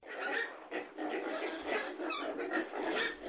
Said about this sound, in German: Was ist Ton Nummer drei? Naja, das ist ein Bauernhof